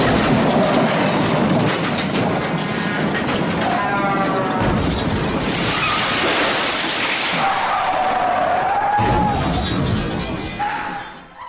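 A Porsche Boxster being destroyed: loud, sustained crunching and smashing of metal with shattering glass and shrill grinding squeals, continuous for about eleven seconds, with no voices.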